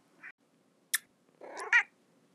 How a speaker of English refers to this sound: So I have four cats that I'm going to try an example on, and I'm going to get them to all meow, and we will compare them, and I will show you that they are all different. This is cat number one.